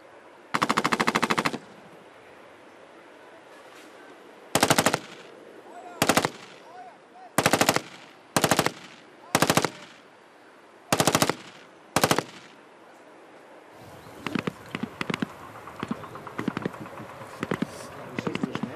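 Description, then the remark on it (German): Loud automatic gunfire at a German Bundeswehr shooting exercise, a whole magazine emptied: one long rattling burst, then a series of short bursts with pauses between, ending in a stretch of scattered rapid shots. No voices. “Feuerstoß schießen. Ein ganzes Magazin leerballern.”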